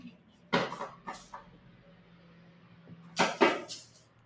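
A cat plays with its toy, making a few sharp rattling knocks at irregular intervals, a pair early on and a louder cluster near the end, with quiet gaps between.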